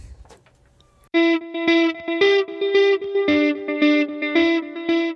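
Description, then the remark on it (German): A short, punchy music jingle kicks in after a brief quiet moment, with loud distorted guitar-like chords hitting in a steady rhythm for a few seconds, with no voices. “Darüber wollen wir gleich reden, aber bevor wir anfangen, hören wir ein wenig Musik.”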